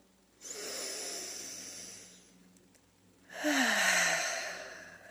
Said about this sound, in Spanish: Ahora vamos a inhalar profundo. Vamos a exhalar. Inhalar.